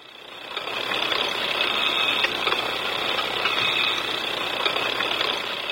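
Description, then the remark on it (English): A steady mechanical whirring hums along with scattered rapid clicks and ticks, a retro computer sound effect created for a movie as the sound of a giant room-sized computer and later used for a robot on screen, playing continuously and fairly loud with no one talking. “Now, the robot had this whirring and clicking sound whenever he appeared on screen.”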